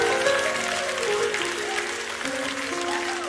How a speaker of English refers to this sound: a round of applause one more time?